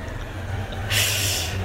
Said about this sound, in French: Et là, il y a un camion poubelle qui chez moi.